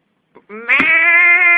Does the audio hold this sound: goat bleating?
yes